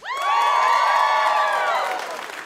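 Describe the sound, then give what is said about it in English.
A studio audience erupts in loud cheering and whooping at the mention of Samantha Bee, many voices rising together, holding for about two seconds before tapering off. “now can I just point out that was a much bigger applause for her than it was for me.”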